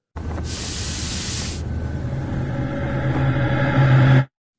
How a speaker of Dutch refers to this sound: we horen een geluid van Dyson. Uit de video waarin ze de koptelefoon met persoonlijke luchtfilter tonen